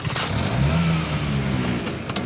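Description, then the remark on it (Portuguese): A just-repaired motorcycle's engine revs up, its pitch climbing sharply then holding at a steady, throaty roar with a brief throttle blip near the end. No voices are present. “La moto est prête.”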